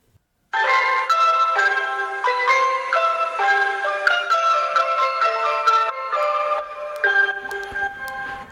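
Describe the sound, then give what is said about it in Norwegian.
A bright, tinkling ice cream van jingle plays a steady melody of chime-like notes, loud and continuous for several seconds with no talking over it. “Hallo, det er Isbilen.”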